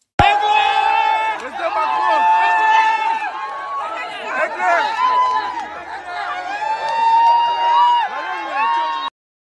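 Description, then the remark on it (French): A dense, loud crowd of voices shouting, cheering and chattering all at once, continuous for about nine seconds, as people party in a nightclub in Africa that Manu went to. “Alors pour se remettre de ses émotions quand même il est allé en boîte Manu et là et là tu te dis mais heureusement qu'il est en Afrique pour faire des bains de foule hein, parce qu'en France ça serait pas passé comme ça et là c'est la teuf.”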